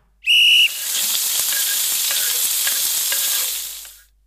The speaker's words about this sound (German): Hast du wieder geknuspert, äh, brutzelt, äh, knistert? Es brutzelt, ähm. es brutzelt. Es brutzelt, okay, es brutzelt.